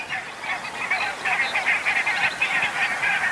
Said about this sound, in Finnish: Niin siinä kuuluu tuota haukahtelua, mikä on valkoposkihanhen ääni.